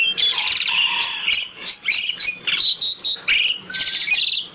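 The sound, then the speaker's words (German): A rapid series of bright, chirping calls from a rare bird species found in northwestern Bali, with quick rising and falling notes, loud, repeating continuously with no voices present. “Und insofern ist dieser Vogel tatsächlich einer von denen, die möglicherweise dieses Schrumpfen des Waldgebietes auf dieser Turi-Insel, die es ja irgendwie auch geworden ist, nicht überleben.”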